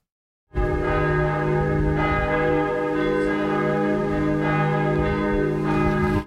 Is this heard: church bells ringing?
yes